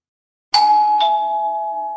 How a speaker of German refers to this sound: Hat's geklingelt. Ich hab's es geklingelt, ja. Ne? Ich habe heute meine Ohren extra geputzt und ich habe gehört, es hat geklingelt.